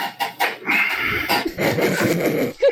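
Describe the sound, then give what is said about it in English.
A chair creaks and squeals repeatedly as someone shifts their weight to get comfy, a fairly loud run of drawn-out squeaks lasting a few seconds with no talking. “Gotta get comfy. Oh, squeak, squeak.”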